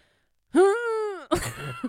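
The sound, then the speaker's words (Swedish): A single voice imitates the stifled almost-cough it makes while sleeping: a drawn-out, throaty voiced groan followed by a short, raspy, gravelly burst, with no other sounds around it. “Då är det som att jag ska hosta, fast jag hostar inte.”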